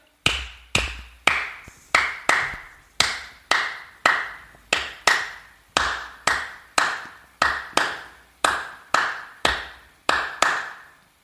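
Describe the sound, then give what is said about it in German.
Sharp hand claps demonstrate the Cuban 3-2 son clave pattern, a group of two claps then a group of three, cycling steadily for about eleven seconds with no talking. “Und damit wir jetzt mal hören, was das ist, klatsche ich euch mal die 3-2 Sonnenklave vor.”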